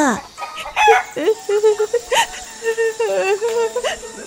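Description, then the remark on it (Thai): A hen clucks repeatedly near a chicken coop while searching for food, a run of short, throaty, slightly rising calls in an uneven rhythm, fairly loud and with no voices over it. “ห่านน้อยเดินมาทั้งวัน หมดแรงจึงได้หยุดนอนพักอยู่ใกล้ๆกับเล้าไก่แม่ไก่ซึ่งกำลังคุยเคียหาอาหารกิน”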